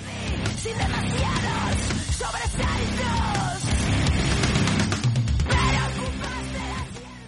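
A loud, dense rock track plays continuously, with heavy distorted guitars, pounding drums and harsh shouted vocals keeping a steady, driving intensity throughout.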